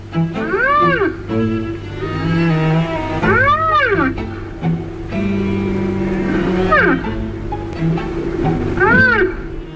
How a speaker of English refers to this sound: Here's the sound of a rhinoceros.